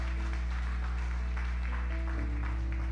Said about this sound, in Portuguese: Dá uma salva de palmas a Deus aí. Mais forte.